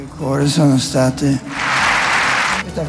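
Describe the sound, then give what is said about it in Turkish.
During a speech by Pope Benedict XVI about his resignation, a man speaks briefly, then a crowd breaks into loud, steady applause that fills about a second before fading back toward his voice. “Papa'nın konuşmasında sık sık alkış ve sevgi gösterisi vardı.”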